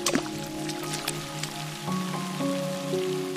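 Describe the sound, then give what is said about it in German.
Rain patters onto puddles with scattered drips and small splashes, heard over a soft, sustained musical tone that shifts pitch partway through. No one speaks. “Dann rennst du zusammen mit Sunny durch den Regen Immer wieder springt ihr dabei in Pfützen, von einer in die nächste.”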